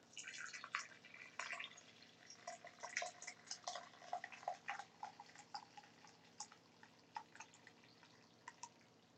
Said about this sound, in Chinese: 好，我们准备好滤网了，我们也准备好我们的。壶，还有准备好我们煮好的这一锅，哦，锅煮奶茶，好，我们可以过滤。